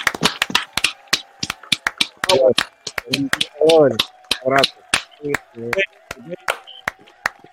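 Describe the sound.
A handful of people give a farewell applause for a departing guest, clapping in loud, irregular bursts of sharp claps, while voices talk and call out over the middle stretch before the clapping carries on alone.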